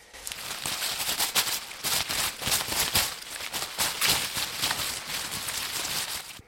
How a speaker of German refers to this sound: Ich habe einen Indiviensalat mitgebracht. Eva, raschelst du den mal?